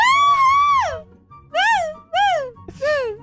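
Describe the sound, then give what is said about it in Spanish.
A voice lets out a string of loud, high-pitched excited cries of joy: one long rising-and-falling whoop followed by three shorter yelps in quick succession, energetic, with no words. “Tirame un, un grito ahí de, de alegría.”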